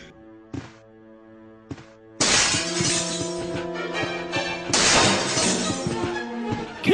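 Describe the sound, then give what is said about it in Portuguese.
A sudden, loud crash of a glass window shattering as a dog jumps toward it in a video game, with bright cascading shards lasting several seconds and a second burst of breaking glass, over a sustained tonal music bed. “um cachorro pula em direção à janela de vidro.”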